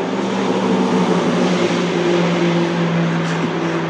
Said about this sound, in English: Just a second, we gotta wait for this car. We got a noisy vehicle going by.